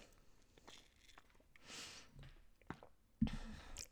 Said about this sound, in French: Donc, petite gorgée d'eau avant que je continue notre belle liste.